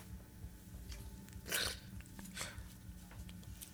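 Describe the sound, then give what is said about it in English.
A dog named Damon licks and grooms itself, with soft wet smacking and slurping sounds, a couple of sharper louder licks standing out over a low background rumble, no voices. “He finished his bath. You bathe yourself like a cat. You are a dog, Damon.”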